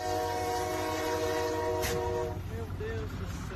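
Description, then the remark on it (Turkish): A freight train rumbles past in Brazil as vehicles wait for it to pass, its horn blaring in one long, loud, sustained blast that cuts off after about two seconds while the heavy low rumble of the cars continues. “Araçlar yük treninin geçişi için bekliyordu.”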